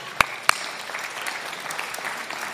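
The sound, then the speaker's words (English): A church audience applauds to welcome people back from sabbatical, a steady, dense patter of many hands clapping, with two sharp, louder claps standing out near the start before settling into an even wash of applause. “And as a, as a welcome home gift, if you clapped, that means you volunteered for children's ministry.”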